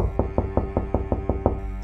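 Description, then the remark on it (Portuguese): A nervous, increasingly thin man raps rapidly and insistently on the door of a home, about eight evenly spaced knocks in quick succession over a steady low hum, then stops. No one speaks. “a fingir que não estávamos em casa quando a sua figura nervosa cada vez mais magra, batia com fervor à porta.”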